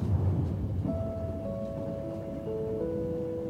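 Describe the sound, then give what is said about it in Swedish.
A steady, deep rumble of a moving train rolls on continuously, with faint thin whining tones drifting above the low roar; no voices, just the muffled, even drone throughout. “Ljuden från tåget var sövande och dova.”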